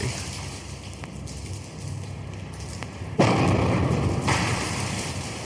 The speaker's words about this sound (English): The sound you hear is the wrecking ball, the deadly battering ram of the urban redeveloper. With a single swing, it knocks down more brick than a dozen 10 hour a day masons laid up in a month. It is a sound to be heard across the land